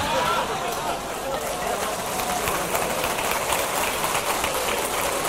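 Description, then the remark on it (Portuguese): A steady wash of audience applause after a speaker quotes Tim Keller during a talk, many hands clapping at once in a dense, crackling roar that holds at an even, fairly loud level throughout with no pause. “Eu estou falando há 30 minutos, o Tim Keller é citado em três frases e ele é aplaudido.”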